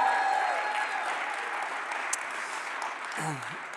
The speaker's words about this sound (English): Can you give it up for the band one more time? First thing.